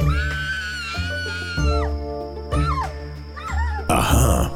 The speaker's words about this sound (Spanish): Y como ustedes dicen, todo era risas y diversión hasta que un día, o mejor dicho, una noche, se escuchó un grito de la lanzadora de cuchillos con los ojos vendados.